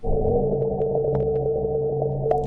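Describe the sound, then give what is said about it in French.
Sonified data recorded by the BepiColombo space probe during its first flyby of Mercury in October 2021, translated into audio files: a steady, eerie electronic drone of layered humming tones over low rumble, dotted with brief high-pitched blips and chirps, with no voices. “Ce sont bien les données enregistrées par la sonde spatiale Bepi Colombo lors de son premier survol de la planète Mercure en octobre 2021.”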